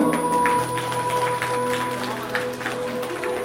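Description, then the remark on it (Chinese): Wedding guests applaud with a steady patter of clapping that carries through the whole moment, layered over sustained background music with held tones, as the newlyweds raise their ring-wearing hands high after the ring exchange. “加入新人将戴有戒指的手高高举起，展示给在场的来宾，接受大家掌声的祝福。”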